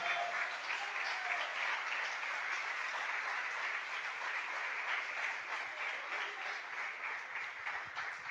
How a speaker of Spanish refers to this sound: Y le damos un aplauso a ese Dios poderoso.